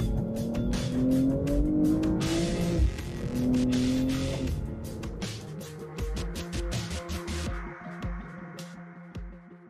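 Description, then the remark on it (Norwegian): A powerful four-wheel-drive sports car engine revs hard and accelerates, its pitch climbing and dropping through several gear changes, loud with a brief tire squeal, and no one speaking. “Og dette er en bil du kan presse skikkelig hardt.”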